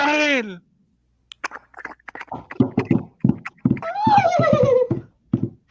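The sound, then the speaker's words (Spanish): A horse whinnies sharply, then a burst of galloping hoofbeats pounds along in a quick, uneven rhythm as riders set off in pursuit, broken by another loud, descending neigh midway through. “¡A los ah. caballos!”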